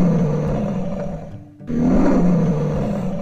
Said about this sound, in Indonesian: Oh, dengar-dengar, dengar tebakanku benar. Itu si raja hutan dengan sa dengar saja suara aumannya. Wah, sangat kencang.